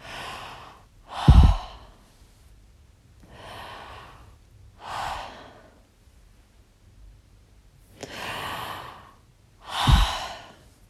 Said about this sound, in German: Und nicht ganz so extrem, aber so vom Grundprinzip durch den Mund zu atmen und ein paar Mal so in Ruhe, so gemächlich durch den Mund ein und aus, macht schon andere Stimmung.